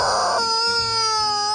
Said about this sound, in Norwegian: Det er lyden av min indre smerte. Hvis du også ønsker å lage lyd av din indre smerte, kjøp en Squeeze Me Chicken.